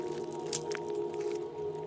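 Wet, squelching footsteps sink into boggy ground, with a sharp snap like a breaking twig partway through, all over a steady low humming drone.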